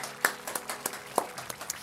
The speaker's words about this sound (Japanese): イエスに大きな拍手していきましょう